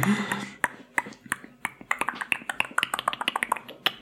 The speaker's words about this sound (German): Jede Art von Schmatzen oder auch Klicken mit der Zunge. Alles, was du mit deiner Zunge machen kannst, ist, ist sehr gut,